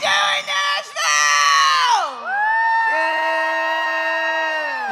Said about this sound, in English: I want to say, how the hell are you doing, Nashville? And I want you guys to scream like there's no tomorrow.